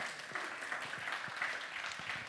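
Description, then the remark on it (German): Steady applause from an audience, many hands clapping densely and continuously with a bright, crackling texture, no voices standing out over it. “Genau, ihr habt ganz oft geklatscht an diesen Stellen.”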